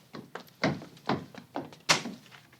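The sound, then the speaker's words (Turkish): A house door is opened for a visitor with a series of solid wooden thunks and clunks, five or six fairly loud knocks and bumps spaced irregularly over a couple of seconds, with no talking. “Söylenmeyi bırak da aç kapıyı.”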